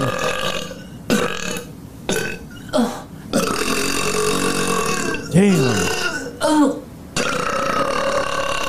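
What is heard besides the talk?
repeated burping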